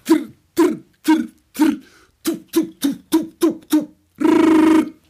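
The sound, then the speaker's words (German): A voice imitates gunfire: a few spaced bursts, then a rapid string of short machine-gun pops, ending in one long, loud, rough blast like a bazooka. “Machine Gun, u drei eigentlich und ähm, so eine Bazooka.”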